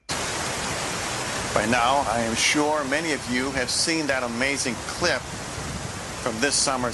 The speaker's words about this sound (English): And so, this is a, a picture of like a running brook or creek that's uh, you know running pretty swiftly and so that's the sound of rushing water behind you uh, behind him.